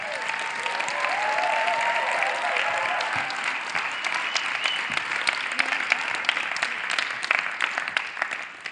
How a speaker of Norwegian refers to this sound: Du må reise deg, og så, og så, og så må vi gi han en skikkelig klapp.